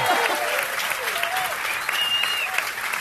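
Steady applause from an audience welcoming Aleix Pariser, a sports show presenter, a dense wash of clapping that stays loud and even for the whole stretch, with a few faint whoops and cheers rising over it.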